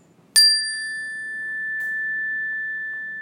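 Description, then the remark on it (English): A single Zenergy Chime is struck sharply to get people's attention, then a clear, bright metallic tone rings on steadily with a long sustain, a faint second tap partway through, alone with no talking. “And then I have this great thing, it's called a uh, Zenergy Chime and this energy chime is a wonderful way to um, uh, to uh, kind of make a noise so people can pay attention.”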